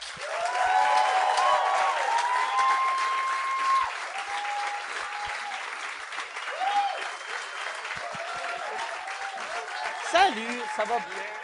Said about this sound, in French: Euh, mesdames et messieurs, j'aimerais ça qu'on donne bonne main d'applaudissement à Jean-François Mercier et Catherine Levac.